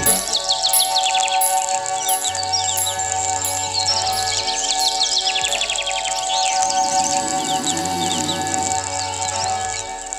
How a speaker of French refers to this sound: Je m'endors avec ces putains d'oiseaux.